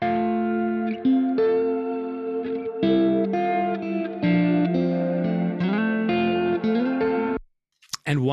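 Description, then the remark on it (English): An electric guitar plays sustained chords through the old delay with reverb, the notes ringing and overlapping for about seven seconds before cutting off abruptly, followed by a brief faint burst. “And old delay reverb.”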